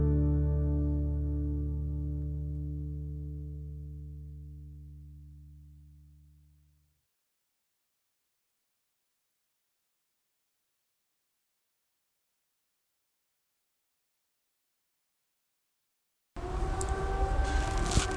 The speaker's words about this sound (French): Ah, puis on va laisser passer les sirènes des pompiers alors. On est mercredi, premier mercredi du mois.